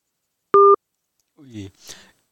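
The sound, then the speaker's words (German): A single short, loud telephone busy-tone beep sounds as a call is cut off by the phone operator after roaming charges were exceeded, steady and electronic, followed by a brief pause and then a voice starting to speak. “Jetzt hat leider mein Telefonbetreiber ausgeschalten, weil wir die Roaming-Gebühren überschritten haben.”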